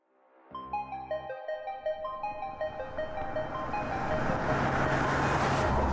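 The engine of a vehicle called Vanna White rumbles to life and revs in rising, stepped bursts, then swells into a loud, sustained roar as it drives off into the distance, with no voices.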